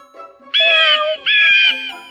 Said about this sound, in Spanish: 23. Pez loro, soy un ave, pero maullo como un gato.